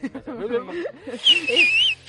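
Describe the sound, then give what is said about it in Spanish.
A person whistles a warbling, pitch-gliding phrase imitating silbo, the whistled language of the Canary Islands, for under a second right after a stretch of talking, with some voice continuing faintly beneath it. “Ese, soy yo, es el silbo, el silbo mío. Es el Silbo ugartiano.”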